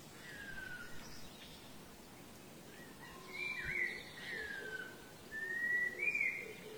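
Small birds, mostly sparrows, chirping in the woods on an overcast, humid day after morning rain: scattered short, high whistled calls and brief sweeping notes, a few overlapping, rising to louder bursts near the end over a soft steady background hiss.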